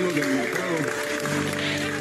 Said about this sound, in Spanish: Ahí le llevan el diablito. Ahí se lo llevan al señor. Todos aplauden en el mercado.